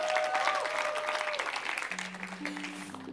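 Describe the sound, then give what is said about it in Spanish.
Sustained applause from an audience for the band, dense rapid clapping filling the whole clip at a steady loudness, with a few held instrumental tones ringing faintly underneath. “Podemos más de palmas a nuestra banda más.”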